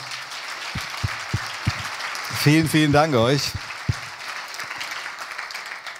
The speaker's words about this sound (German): Und vielen Dank nochmal an die Band. Das war wieder wirklich toll. Ich denke, wir geben ihnen nochmal einen dicken Applaus, oder?